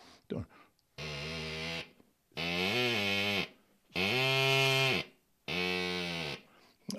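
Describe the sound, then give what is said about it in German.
Four loud, buzzy honks made by simply blowing into a wind instrument without proper playing technique, each lasting about a second with short gaps between, their pitch wavering and bending slightly like a car horn or bleating animal. “Denn äh, wenn ich nur reinblase, dann kommt fast so ein Ton raus wie bei einer Autohupe.”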